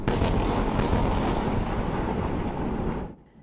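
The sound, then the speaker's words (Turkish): A relentless barrage of booming explosions and gunfire from unceasing daytime attacks by land and air, loud and dense, with sharp bursts near the start rolling into a continuous heavy rumble that cuts off abruptly near the end. No voices. “Saldırılar gündüz karadan ve havadan aralıksız devam etti.”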